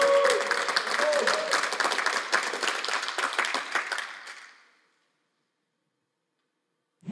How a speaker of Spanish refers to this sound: Oh, yo creo que tú le puedes dar un mejor aplauso.